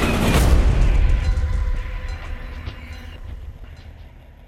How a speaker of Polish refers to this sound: Oświetliły ją lampy pociągu a potem nie było nawet bólu, tylko huk. Straszliwy huk rozpędzonego, wielotonowego składu.